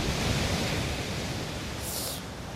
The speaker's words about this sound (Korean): 예. 온다. 파도 온다. 온다. 파도 온다.